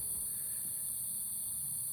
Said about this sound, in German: Vor allen Dingen, um aufzunehmen, wie übelst laut hier die Grillen sind. Und gerade hat noch einer angefangen mit so einem durchgehenden Ziepen.